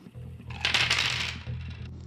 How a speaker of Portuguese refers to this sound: E eu vou jogar aqui um dado para eles para saber como eles vão sair nessa tentativa